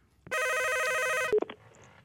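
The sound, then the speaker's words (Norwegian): A telephone rings loudly with a steady electronic trill for about a second, then cuts off abruptly with a brief clatter as the receiver is picked up. “Nei, nei, nå ringer det igjen.”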